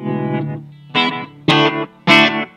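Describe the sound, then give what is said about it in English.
Electric guitar played through a Cube amp with delay, a sustained chord followed by three sharp, loud strums spaced about half a second apart, each ringing with a gritty, effected tone and no talking. “Like even that's a little delay.”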